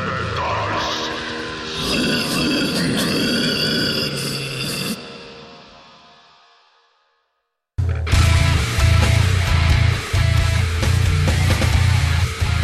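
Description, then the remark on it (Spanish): Extreme metal with growled, guttural vocals over dense distorted guitars and pounding drums, played on Metálisis, the extreme metal program of Radio UNAM; a first loud passage fades into a short silence, then a heavier, bass-driven section crashes in and continues. “Bienvenidas, orejas sangrantes y atentas al único programa de metal extremo de Radio UNAM.”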